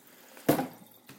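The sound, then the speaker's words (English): Water splashes into a Vitamix blender container as it is rinsed out, in one brief, loud gush that quickly tapers to a trickle, followed by a fainter second splash. No one speaks. “Now I'm going to rinse it out”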